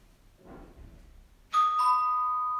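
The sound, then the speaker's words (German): A doorbell chimes with two bright, ringing tones in quick succession, the second note lingering and slowly fading, after a moment of soft, muffled background rustle. “Oh, jetzt klingelt hier.”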